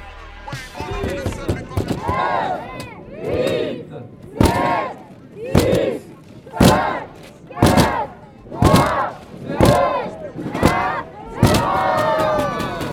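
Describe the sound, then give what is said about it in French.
A large crowd chants a countdown in unison, loud rhythmic shouts landing about once a second, mixed with sharp percussive bangs and a lively, echoing background of many voices, at the Tour de France stage 11 finish in Poitiers, France, urging on the handing out of collector bags. “Et non, ce n'est pas le décompte qui a servi à voir le vainqueur de cette onzième étape, Caleb Ewan, sur la première place du podium, et plutôt celui qui a servi à encourager”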